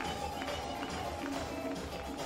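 footsteps walking away

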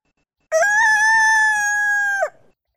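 rooster crowing

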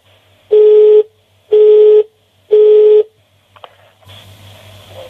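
telephone call tones

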